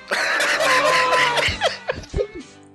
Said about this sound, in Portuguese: Foi a, a risada com a tosse fudeu tudo, mano.